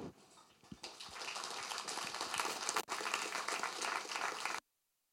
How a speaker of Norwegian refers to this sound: Da gjenstår det bare å gi en varm applaus.